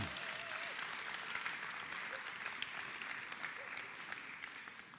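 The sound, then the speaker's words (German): Sustained audience applause in a hall at a baptism service, welcoming friends, family and acquaintances: a dense wash of many hands clapping steadily for the full five seconds at a fairly even level, with no one speaking over it. “Gib mal einen fetten Applaus.”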